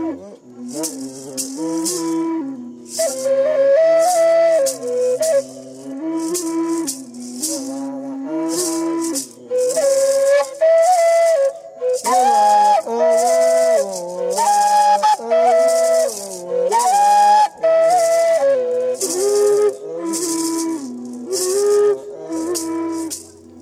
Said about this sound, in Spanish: Escucha conmigo este ejemplo de dos carrizos con maraca y canto llamado Canto del Sapo, grabación de la Fundación de Música 1994.